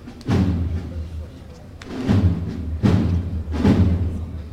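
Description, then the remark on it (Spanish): Several heavy knocks from a llamador on the Montesión float (paso) strike at uneven intervals, loud, calling the bearers as the zancos are loosened for the last stretch (chicota), over a low, steady murmur of background crowd noise. “Se están aflojando los zancos y se llama el paso, la última chicota.”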